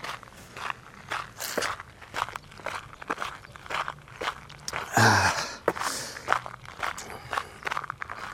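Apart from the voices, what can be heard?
footsteps walking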